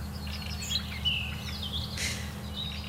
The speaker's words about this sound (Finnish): No nyt Kuovi laulaa ja laulu Rastas on edelleen tuolla tässä näin. Joo. Toistelee. Kyllä. Tjui, Yeah. tjui. Pari kertaa aina tulee sama ennen kuin vaihtaa. No niin, nyt se vaihtaa.